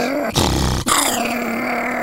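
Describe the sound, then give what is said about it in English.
A man's voice imitates Fritz the attack dog, a dog on a television show, giving a short burst of loud, rough growling followed by a sustained low snarl. “the show now has a dog, Fritz the attack dog.”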